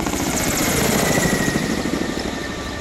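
A Kamov Ka-32 helicopter with a coaxial main rotor (two rotors mounted one above the other) drones steadily overhead, its rotors making a fast, rhythmic chop over a loud, dense engine roar that holds constant throughout, with no voices.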